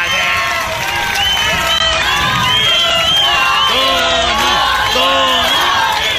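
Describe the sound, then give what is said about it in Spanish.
A loud crowd cheers and shouts continuously, many overlapping voices yelling and whooping, a concert audience cheering a singer. “parece de las peleas del santo, ¿no, De Ese ambiente”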